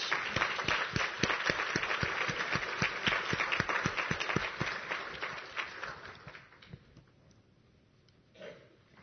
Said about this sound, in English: And may God bless your choir. And we should give them another hand of applause, please.